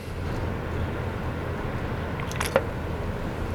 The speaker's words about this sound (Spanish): Déjale otro trago aquí mi bebida energética.